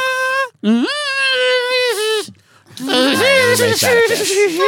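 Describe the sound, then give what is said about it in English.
A voice mimics a guitar, holding a loud, bending tone, pausing briefly, then launching into a rougher, wavering second riff with sliding pitches. “Can you do the guitar sound at least?”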